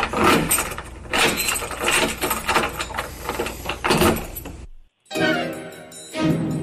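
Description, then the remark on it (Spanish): A door is pushed shut with scraping, rattling clunks, followed by a brief pause and then the metallic clack and slide of a latch bolt being fastened. “Cierra la puerta con aldaba. Voy a cerrar la puerta.”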